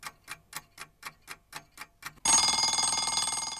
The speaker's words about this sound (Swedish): Jag klipper in en sån tickande klocka här nu i väntan på ditt svar. Du får fem sekunder att fundera.